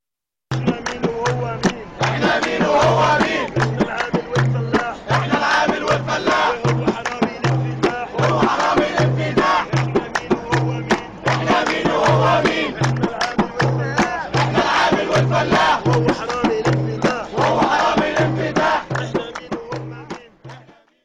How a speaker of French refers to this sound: Alors j'aimerais bien faire entendre le son d'une performance de slogan qui est fabriquée à partir d'un chant révolutionnaire.